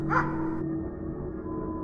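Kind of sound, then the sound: animal, several dogs barking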